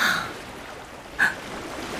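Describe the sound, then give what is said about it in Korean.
Ocean waves wash steadily onto a shore, a continuous hissing surf with one louder wave breaking partway through. No voices, just the moderate, even roar of water. “어 이거 파도 소리죠?”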